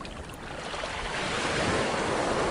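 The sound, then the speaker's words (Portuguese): Ocean waves wash onto the shore in a steady, rushing roar that swells gradually louder, a broad hiss of surf filling the scene with no voices present. “lava seu rosto, lava todo o seu corpo com a água do mar, aliviando todos os fardos, receios e medos que você carrega.”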